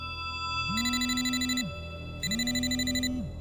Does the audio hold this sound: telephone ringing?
yes